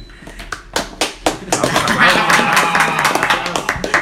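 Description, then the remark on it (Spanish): Audience applause welcoming a guest professor onto a program builds from a few scattered claps into a dense, steady wash of clapping from many hands, with voices murmuring underneath and a few sharp claps standing out. “Gracias, gracias por los aplausos.”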